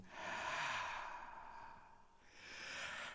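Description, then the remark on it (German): A voice imitates blowing autumn wind with a long, breathy whooshing exhale that swells, dips briefly, then rises again, fairly loud with no talking. “Genauso hört er sich an. Ein Wind. Wind fegt über das Land.”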